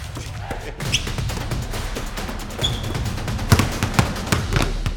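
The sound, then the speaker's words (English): Five basketballs bounce at once as someone tries to juggle them in a juggling contest, their thuds overlapping in a busy, irregular patter, with faint voices in the background. “You have three balls. I have five basketballs.”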